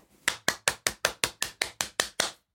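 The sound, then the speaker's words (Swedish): One person claps their hands about eleven times in a quick, steady rhythm, each clap a sharp, bright smack with no talking around it. “Det var en applåd från mig.”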